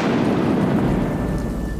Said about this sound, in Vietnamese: Câu nói vừa dứt thì trời nổi cơn rông tố Đây là cơn rông tố của đất trời Chứ không phải do đạo thuật thay tà thuật của thế giới tâm linh Một tiếng sấm nổ vang trời